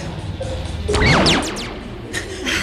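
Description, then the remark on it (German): A hotel dining room door bangs shut with a loud, rattling slam that rings out briefly, followed by a quieter knock, all over a steady background hiss. “Das war die Tür vom Speisesaal.”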